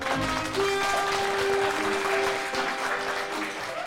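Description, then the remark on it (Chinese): A large crowd applauds steadily to welcome Luo Yonghao and Feng Tang at a speech event, a dense wash of clapping at an even loudness, with a sustained musical tone running underneath and faint voices mixed in. “热烈的掌声欢迎你们期待已久的罗永浩老师和冯唐老师。”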